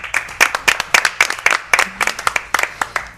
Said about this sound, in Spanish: Entonces voy a pedir un aplauso para ella.